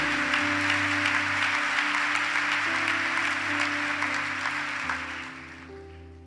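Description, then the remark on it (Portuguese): Loud, dense applause from an audience at a church service, a steady wash of clapping with sustained low musical tones underneath, tapering off slightly toward the end. “Senta a mão quando você for aplaudir.”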